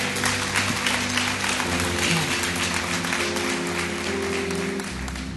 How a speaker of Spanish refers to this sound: Aplaude al Señor entonces, por favor.